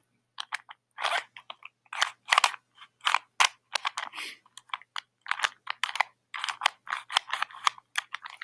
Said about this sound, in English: It's a Rubik's Cube.